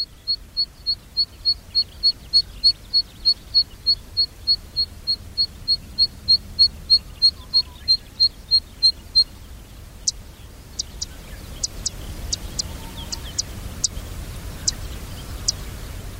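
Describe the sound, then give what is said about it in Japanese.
Zitting cisticola, a sparrow-sized bird about 13 cm long, calling in Nagareyama, Chiba Prefecture, Japan: a steady series of sharp, high 'zit' notes repeated evenly for several seconds, then scattered dry clicking ticks, over a quiet outdoor background. “千葉県流山のセッカをお届けします。”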